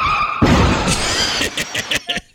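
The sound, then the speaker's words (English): A loud fake car crash sound effect: a sudden heavy impact and grinding roar, followed by several sharp clattering bursts of falling debris or breaking glass that die out quickly. “Well, let me do the fake car crash then.”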